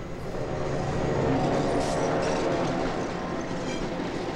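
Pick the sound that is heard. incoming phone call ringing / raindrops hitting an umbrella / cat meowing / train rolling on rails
train rolling on rails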